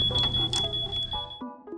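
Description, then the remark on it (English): A 10-minute timer alarm sounds as a steady, high-pitched electronic tone, held for over a second before cutting off, with muffled room noise underneath. “I think that my timer's going off now.”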